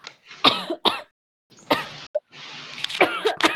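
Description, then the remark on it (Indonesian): A person coughs several times: two quick coughs, a brief pause, then a few more rough, throaty coughs. No one speaks. “Aku batuk dulu.”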